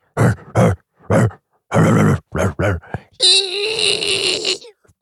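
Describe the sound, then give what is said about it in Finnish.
Finnish death metal with harsh growled vocals: six or seven short guttural bursts in a choppy rhythm, then a loud, sustained, rasping scream-like tone for over a second before it cuts off. “Tää on tämmöistä suomalaista death metallia”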